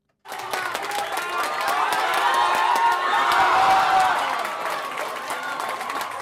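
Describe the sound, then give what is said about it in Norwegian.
A packed pub crowd at UN cheers loudly as Maiken Caspersen Falla goes into the sprint at the Sochi Winter Olympics, with dense clapping and excited shouting that swells to a peak midway and then eases slightly, staying noisy throughout. “Maiken Caspersen Falla går inn til Sprinkel, og den fullsatte puben på UN koker.”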